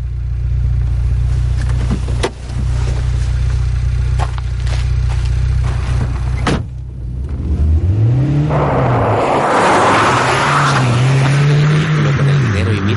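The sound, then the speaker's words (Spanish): A car engine idles with a low, steady rumble, then revs up loudly and pulls away, its pitch rising and falling as it accelerates into louder road noise. “El niño contempla cómo el coche se va”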